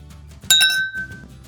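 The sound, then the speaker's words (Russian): Glasses clink together in a toast: a bright, high-pitched strike followed by a second quick tap, leaving a clear ringing tone that fades over about half a second, over a soft low background murmur. “Чин-чин!”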